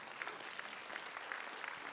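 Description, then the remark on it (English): A church audience breaks into sustained applause, a dense steady patter of many hands clapping with a few brief cheers rising through it, fairly quiet overall. “We can cheer for that.”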